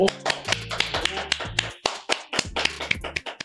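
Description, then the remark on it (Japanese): A single person claps steadily for a few seconds, sharp hand claps in a quick uneven rhythm over a low hum, with no talking. The clapping follows an announcement of 100 kilograms of beef being donated to youth basketball players. “まあ、ここまで自分で力説して自分で拍手を求めるというね、もう自作自演感が半端ないですけども”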